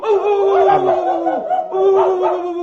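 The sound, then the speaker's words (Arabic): Human voices imitate a dog in a salon, letting out drawn-out, howling barks in two loud, close bursts with a brief pause between them, with a hint of laughter mixed in. “يا ناس بقى دول عاقلين سايبينهم الناس ازاي دول يهوهوا بالشكل يا اخينا يا اخينا حرام عليك صوتنا اتنبح من الهوهوه”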